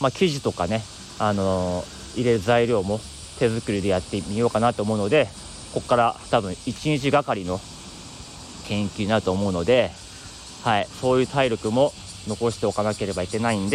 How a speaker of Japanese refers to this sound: いやしかしね本当にあのセミがうるさくてね、まあ、いろんなね、あのー、スタイフやってる方外で撮ってる方は最近はセミの音がすごくね賑やかで夏って感じですね全然僕ね、その、セミの音嫌じゃないんですよ。夏だな、いいなってことで、あの、うん、楽しんでる感じです。